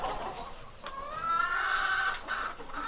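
chicken clucking

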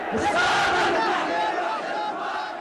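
protest crowd chanting

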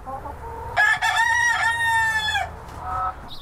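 chickens clucking

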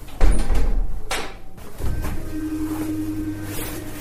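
automatic door opening

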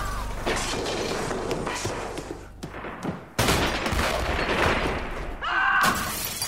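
gunfire volley

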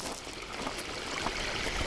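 flowing

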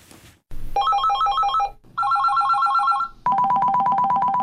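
telephone ringing

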